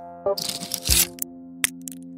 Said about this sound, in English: Packed into those small foil pouches, punching the tiny pills out is surprisingly satisfying.